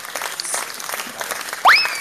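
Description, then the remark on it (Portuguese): A crowd claps steadily in a dense, even patter of applause, and a sharp upward-sliding whistle cuts in over the clapping near the end. “Merece mais uma salva de palmas aí.”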